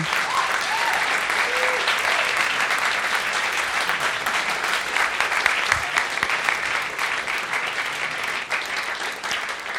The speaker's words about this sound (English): Let's have another round of applause for Andrew Norman.